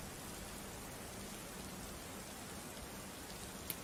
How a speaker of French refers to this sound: Euh, la pluie se fait de plus en plus intense.